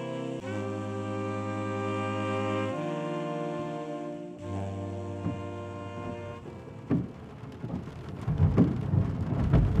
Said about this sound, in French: Dans un grincement proche d'un cri de douleur, l'essuie-glace fatigué balayait avec peine le pare-brise de la voiture. Mais la pluie semblait redoubler à chaque fois, rendant ce travail inutile.